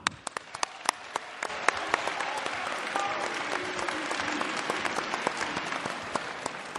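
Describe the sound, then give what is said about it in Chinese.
A large crowd applauds steadily, a dense wash of many hands clapping that builds slightly and holds at a fairly loud level, with a few sharper individual claps standing out, welcoming Guo Degang onto the stage at a performance. “呃，接下来呢，让我们用最最热烈的掌声欢迎今天的主角，也就是我们的他们二位的恩师郭德纲先生上场。”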